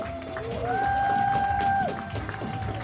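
A crowd claps and cheers for a guest in a sustained burst of dense, noisy applause, with a whistle-like tone holding steady over the middle of the ovation before it eases off.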